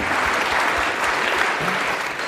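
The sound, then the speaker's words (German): Steady, dense applause from an audience, a continuous wash of many hands clapping at an even, fairly loud level with no voices standing out. “Applaus, meine Damen und Herren.”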